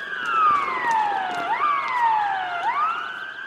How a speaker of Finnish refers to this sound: Hälytys soi ja taivanilaiset sotilaslentäjät ryntäävät F-16 hävittäjilleen lentotukikohdassa Etelä-Taivanissa.